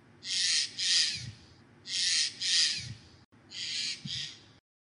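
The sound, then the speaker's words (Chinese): Three harsh, rasping bird calls from a Eurasian jay, each a broad hoarse screech split into two close bursts, repeated at a steady interval with short quiet gaps and no talking. “不过听到它们的叫声呐，确实呢，就是跟鸦科比较接近的，也就是比较沙沙哑的一种叫声。”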